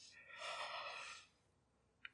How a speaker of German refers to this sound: Jedes Mal, wenn ich einen Solo-Podcast mache, bin ich nur am Gähnen, gell? als ob ich mich von meinem eigenen äh, gesprochenen Wort äh, langweile.